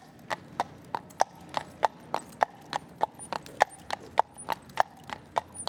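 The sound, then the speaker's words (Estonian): Horse hooves pulling a carriage clip-clop in a brisk, steady trot, sharp clear knocks repeating about three times a second over a faint low rumble, with no voices, as the carriage carrying a doctor and his wife drives away. “isand oli sellega nõus, laskis neid mõlemaid tõlda istuda ja nad sõitsid koos minema”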